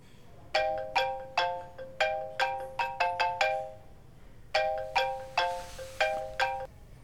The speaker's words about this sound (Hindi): थोड़ी देर बाद उसको एक अननोन नंबर से फोन आता है